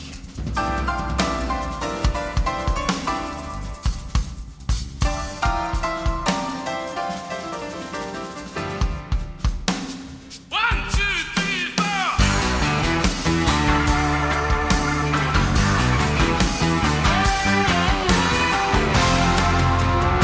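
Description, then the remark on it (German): Jazzy instrumental music plays loud, opening a song; after a brief dip about halfway through, the arrangement swells into a brighter, fuller passage. No one speaks. “der beginnt, man hört es im Hintergrund schon, ganz schön jazzig.”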